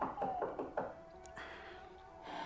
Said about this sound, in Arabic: شكون يدق على الباب في هالليل